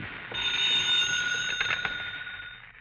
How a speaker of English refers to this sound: Your phone should ring soon. Soon. Uh, there it is.